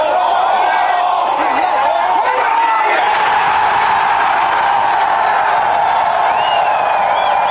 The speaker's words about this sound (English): Is there anything better than the gallery cheering on the Canadian at home? First time a Canadian has won it since the 50s.